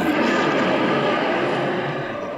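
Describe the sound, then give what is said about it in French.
A loud, continuous rumble of thunder rolls on without a break, deep and broad, echoing from cave to cave, holding steady through the whole moment with no voices over it. “Et un grondement de tonnerre lui coupa la parole et se répercuta de cave en cave.”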